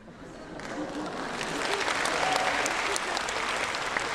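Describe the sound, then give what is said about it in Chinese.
An audience breaks into sustained applause, a dense crackle of many hands clapping that swells slightly and holds steady throughout, with no voices standing out. “我相信鼓掌的朋友们都跟我当年有同样的震撼”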